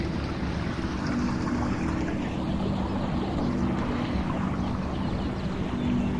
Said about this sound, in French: Vous passez à côté de ce canal, ce canal de tout à l'heure presque oublié. Vous reconnaissez son bruit